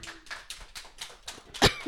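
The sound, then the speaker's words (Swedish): Brief applause at the close of a radio broadcast, with steady, evenly spaced claps, around seven in a quick rhythm, ending on one louder, sharper clap. No one speaks. “Och, eh, en applåd där.”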